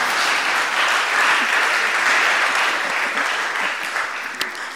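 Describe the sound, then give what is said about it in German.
An audience claps steadily for several seconds in an evening gathering, applauding the young people aged between 15 and 30 who are present, a dense and fairly loud wash of many hands with no clear rhythm, easing slightly toward the end without voices standing out. “Und ich danke ganz fest all denen, die jetzt so irgendwo zwischen 15 und 30 sind, die hier sind, die jetzt heute am Abend da sind spontan sagen, jetzt gerade denen Applaus.”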